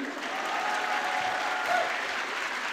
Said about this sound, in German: Ich finde das so gemein, dass du dafür Applaus kriegst.